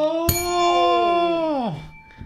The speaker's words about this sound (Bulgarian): Удри, удри, удри звънеца.